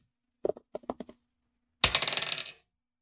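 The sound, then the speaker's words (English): A few quick clicks as dice are shaken for a stealth check in a tabletop role-playing game, then a sharp clack as they hit a hard table and clatter rapidly to a stop, fairly loud, with no talking. “This dice is getting fucked off.”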